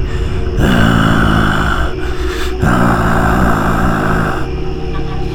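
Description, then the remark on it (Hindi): A deep, menacing growl, as if from something very angry, coming from outside a door and growing louder, rumbles loudly and steadily for several seconds, rough and guttural, with only a couple of brief dips before it swells again, continuous. “कुछ ऐसी वो आवाज़ फिर चली और फिर से कमरे का जायज़ा करते हुए मुआयना करते हुए सामने वाले दरवाजे के बाहर आके रुक गई और अब ये गुर्राने की आवाज़ बढ़ गई थी जैसे कोई बहुत गुस्से में हो”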